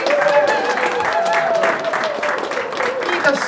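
Sustained audience applause for a performer at a live-recorded evening event, a dense steady wash of many hands clapping at a fairly loud, even level throughout, with some vocal tones briefly rising above the clapping.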